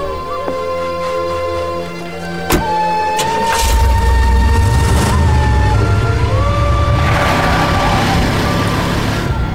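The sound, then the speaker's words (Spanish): A car engine rumbles steadily as the vehicle drives along, growing louder after a couple of sharp thuds near the start, with a faint tonal hum over the low drone. “Será mejor encontrar un lugar para estacionarme y pasar la noche aquí en el auto.”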